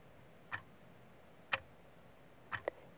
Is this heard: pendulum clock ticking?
yes